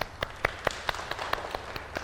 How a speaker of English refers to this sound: So Simon says, wave your hands. Simon says, clap your hands.